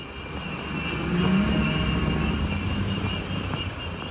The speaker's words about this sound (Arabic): عم نسمع صوت قافلة من الجرافات والأطقم الهندسية ورافعات الأنقاض اللي دخلت من معبر رفح بعد حوالي أسبوعين من الهدنة شفناها بتمشي في شوارع القطاع وهي حاملة الأعلام المصرية